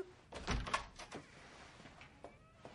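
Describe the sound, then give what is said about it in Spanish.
A door opens as a woman peers in and holds up a note, with a short cluster of clunks and a brief rattle, fairly quiet, followed by a couple of faint clicks. “Se asoma una mujer por la puerta y enseña una nota.”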